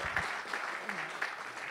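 Steady audience applause for three men at a French-language technology conference: a dense, continuous wash of many hands clapping at an even, moderately loud level throughout, with faint scattered accents but no voices standing out.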